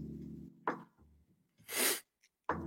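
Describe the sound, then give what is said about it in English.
A person sneezes: a sharp intake of breath, then one loud, explosive burst, followed by a short breathy sound at the end. “sneezes”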